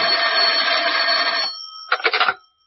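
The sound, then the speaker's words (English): A loud telephone bell rings continuously in an office for about a second and a half, pauses, then starts a second shorter ring that cuts off abruptly as if picked up. “When I walked into the office, the phone was ringing.”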